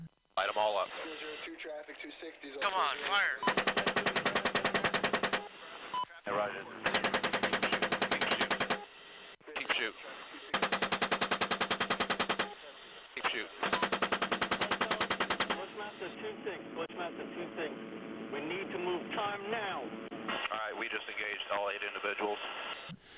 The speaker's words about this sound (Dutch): Vanuit een Apache schieten op vermeende terroristen